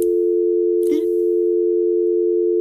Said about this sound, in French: Voilà ce qui s'appelle une coupure de téléphone brusque. Que se passe-t-il Je crois que j'ai fait une fausse manipulation.